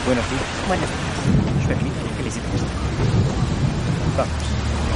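Steady, heavy rain pours down continuously outside a hotel in Paris, a dense hiss with a deep rumbling undertone like a passing storm, unchanging throughout.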